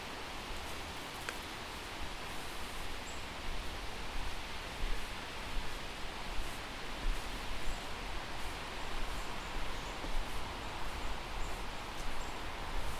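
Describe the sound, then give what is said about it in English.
Steady wind rustling through the leaves of a stand of silver birch in a small forest, a continuous soft hiss that swells gently without pause, with a few faint bird chirps. “That's the sound of the wind in the trees, rustling the leaves.”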